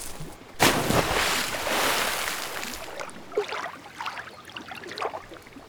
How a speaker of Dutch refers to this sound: Wat een fijne bungalow. En zo dicht aan het water. Ik denk dat ik maar even een duik ga nemen.